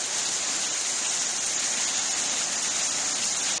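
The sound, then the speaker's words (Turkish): A heavy downpour in Antalya roars steadily, a dense, unbroken hiss of rain pounding the ground with no pauses and no voices, causing flooding and water pooling on roads. “Antalya'da şiddetli yağış nedeniyle yollarda su birikintileri oluştu. Sağanak sel ve taşkınlara neden oldu.”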